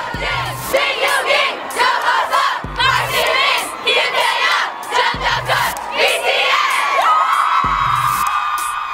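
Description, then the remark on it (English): A dense, roaring crowd of fans at a red carpet event screams and shrieks nonstop, high excited voices overlapping in a loud, chaotic wall of noise, with dull thumps recurring about every two seconds underneath. “It's pandemonium, man. I mean, you can't hear anything.”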